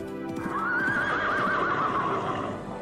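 A wild horse gives a long, loud, quavering whinny lasting a couple of seconds, over the steady clatter of hooves.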